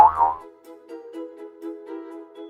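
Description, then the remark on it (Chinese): A cartoon boing jump effect as a flea contestant leaps high in a jumping contest: a quick twangy attack followed by a wobbling, springy tone that rings on and slowly fades over a couple of seconds, with no voices. “哇塞，我跳的真高！”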